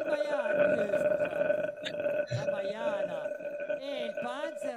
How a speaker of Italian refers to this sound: Eh, però senti, questo non è un rutto, questo è un, è un gorgheggio. È un gorgheggio, si sentiva che, veniva, che era più alto.